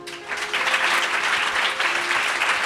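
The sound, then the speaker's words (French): An audience warmly applauds the guests of a show recording, a dense, steady wash of many hands clapping that holds at an even, fairly loud level throughout, with no voices breaking through. “Donc, je voudrais que tout le monde applaudisse chaleureusement”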